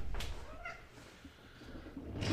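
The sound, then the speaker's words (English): A cat gives a single short, soft meow with a slight rise and fall in pitch, set against faint background noise with brief rustling bursts at the start and end. “Oh, another kitty cat.”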